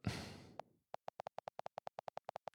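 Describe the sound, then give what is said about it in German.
A quick run of about fourteen short electronic beeps, input tones from a mobile phone's keypad, pulsing evenly and closely spaced after a brief burst of rustling noise at the start. “Dafür hören wir die Eingabegeräusche.”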